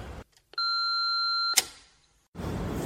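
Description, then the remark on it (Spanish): A single steady electronic beep lasting about a second, used to separate recorded audio segments, clear and prominent, ending in a sharp click, with brief stretches of background noise before and after. “Como va a ser un episodio más o menos por fascículos, eh, puede que os ponga un sonidito para separar cada uno de los audios que he ido grabando”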